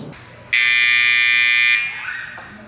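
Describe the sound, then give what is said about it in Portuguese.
A single loud, harsh electric doorbell buzz rings steadily for about a second and then cuts off, at a hospital pediatric emergency unit (PSI do HU) at half past four in the morning, with only faint background noise before and after and no one talking. “Você é o R1 de plantão e a campainha toca.”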